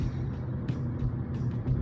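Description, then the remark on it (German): A steady low rumble of road and engine noise from inside a moving car, continuous and fairly loud, with a few brief hissy bursts on top and no one talking. “ich kann es auch gerade nicht nachlesen, weil ich im Auto bin”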